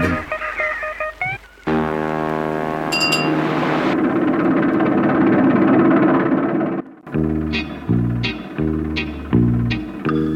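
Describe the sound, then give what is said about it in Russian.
A small motorboat's engine starts up and rumbles loudly and steadily as the boat speeds across the water, a thick droning roar that later breaks into a series of pulsing, throbbing bursts. “Шумев моторами, выпустив мчится катерок.”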